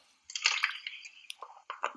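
Liquid is poured, a steady splashing gurgle lasting a couple of seconds with brief wet sputters near the end, fairly quiet and with no voices.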